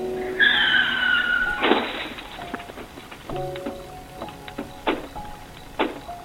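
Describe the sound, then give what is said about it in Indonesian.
A new car's tires let out a loud, high screech for about a second on an empty road, then a heavy crash hits, leaving the car badly dented, followed by scattered clanks and rattles of debris settling. “Mobil gue pajok parah.”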